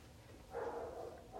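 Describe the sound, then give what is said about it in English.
A dog barks in a fairly faint run of barking that starts partway through and carries on to the end, with no one talking. “The dog just keeps barking, said Max.”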